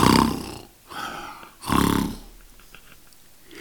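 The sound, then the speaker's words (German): Two very loud, rasping snores from a wolf that has fallen asleep in bed, each a rough growling roar, separated by a short pause, followed by a quieter trailing breath. “Als der Wolf seine Gier gestillt hatte, legte er sich wieder ins Bett, schlief ein und fing an, überlaut zu schnarchen.”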